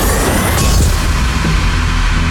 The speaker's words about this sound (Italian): abbiamo l'appuntamento con Pagine in Rete che è preceduto ovviamente da una sigla